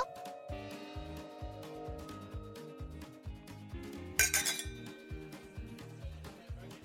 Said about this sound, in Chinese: 哇，这里是哪里啊？ 对呀，哇，好多人哦！ 喵喵，这里是美国的酒吧。你们仔细听喽！